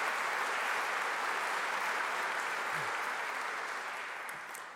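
Sustained applause from a large crowd, a dense, even wash of clapping that holds steady at full strength for several seconds before tapering off slightly at the end.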